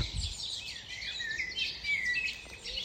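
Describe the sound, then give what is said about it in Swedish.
Many birds chirp and twitter at once in a dense, continuous chorus of high, overlapping calls, steady and moderately loud with no voices present. “Fåglarna kvittrar. Det är en hel kör här.”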